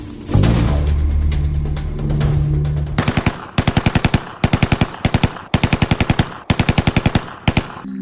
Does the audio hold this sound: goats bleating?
no